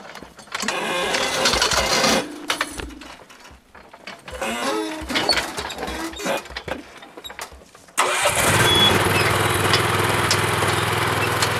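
The engine of a self-built forestry machine, a wagon pulled by two work horses with a grapple for loading firewood, cranks with uneven mechanical clatter and sputtering, then catches at about eight seconds and settles into a loud, steady idle.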